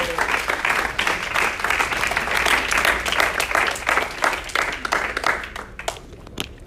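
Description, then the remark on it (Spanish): An audience bursts into sustained applause for Jesus, many hands clapping in a dense, steady patter for several seconds before thinning out into a few scattered claps at the end. “un aplauso a Jesús, usted está ahí mirándome de medio lado.”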